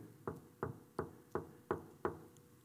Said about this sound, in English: Behold, I stand at the door and knock.